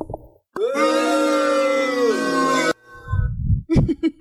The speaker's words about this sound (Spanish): A ver, a ver, sus abucheos merecidos.